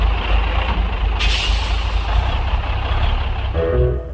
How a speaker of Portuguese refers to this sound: E diz aí que naquele instante um caminhão encostou no posto.